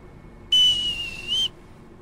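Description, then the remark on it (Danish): A single sustained, piercing whistle blast signalling the end of the parade formation on the deck of a navy ship, lasting about a second, loud and steady with a slight rise near the end, standing alone against a quiet background hum. “Da vi har passeret fløjt Per igen af, paradeopstillingen er forbi”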